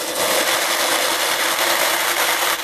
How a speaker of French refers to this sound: Ça, c'est le bruit du pot. Quand on ouvre le pot.